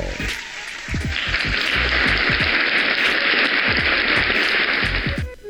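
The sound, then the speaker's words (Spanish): A dense wash of crowd applause swells in after a second and holds steady and loud for about four seconds before cutting off, with a few low vocal sounds mixed underneath. “Y era hora que aplaudieron.”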